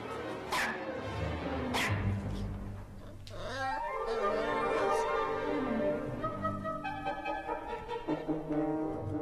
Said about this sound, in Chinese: 汪汪汪汪汪！索尼娅大声地叫起来：“求求你啦，放了我吧，我很疼啊！”